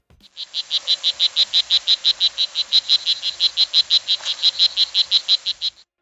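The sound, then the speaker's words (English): A steady, rapid series of high-pitched frog calls pulses about four times per second, loud, continuing without pause for several seconds with no voices present. “Based on the sounds that you just heard and the name of this episode, it's probably clear that this is all about amphibians.”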